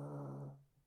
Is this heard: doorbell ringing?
no